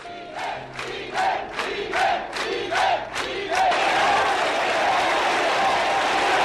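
A large crowd chants Miguel's name in loud, regular rhythmic bursts, then swells into a continuous roar of cheering and clapping as a hearse, followed by two motorcycle riders, moves slowly through the crowd in a funeral procession.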